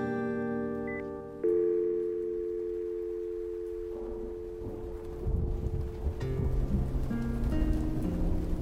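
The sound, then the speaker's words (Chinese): A wind and rain storm outside a public telephone booth, with a steady electronic tone humming underneath; the rushing noise grows heavier partway through, with low gusty rumbling toward the end. “阿汉看着话筒，想着要不要冒风雨再去换零钱回来，继续打给 Birdy，继续唱完这首歌。”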